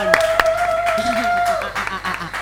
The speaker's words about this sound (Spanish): ¡Vamos! Aplaudan. Ya que para qué vinieron.